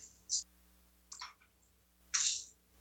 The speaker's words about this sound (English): And if you like them, like maracas, these are called chiquitas actually because of their small size, but they have a really satisfying sound as well